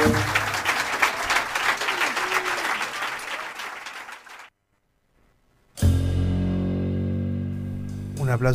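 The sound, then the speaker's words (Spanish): A recorded applause sound effect: a loud burst of dense, rapid clapping for about four seconds cuts off abruptly into a moment of silence before a sustained tonal sound starts up. “para el chino que nos dejó los aplausos para que, demostrar música en vivo.”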